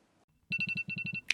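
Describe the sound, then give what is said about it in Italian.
An alarm clock goes off to signal that the time is up, with loud, rapid high-pitched electronic beeps, two quick bursts of four in a steady pulsing rhythm, with nothing else audible. “È eccola, l'implacabile eccola, sveglia che ci eccola. dice che è finito il tempo a disposizione anche di questa puntata di Organizzazione per Negati.”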